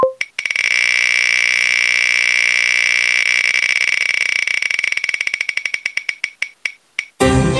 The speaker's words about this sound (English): so anyway, I'm going to go ahead and click the button here, and I don't know if we're going to hear the wheel. You'll hear the wheel in the final recording, but we we may or may not hear it here.